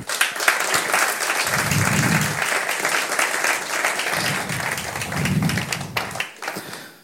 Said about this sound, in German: Können wir den Vieren einen großen Applaus geben?